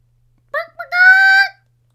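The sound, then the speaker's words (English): A person's voice imitates a hen clucking, sounding more like a rooster: a short, bright call followed by a longer, drawn-out tonal squawk, fairly loud, with silence before and after. “cluck, cluck. I guess I made more of a rooster sound.”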